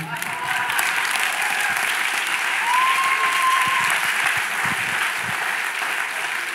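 Steady, dense applause from an audience fills the whole stretch, many hands clapping at once in a continuous wash, fairly loud, with a faint whistle-like tone drifting through.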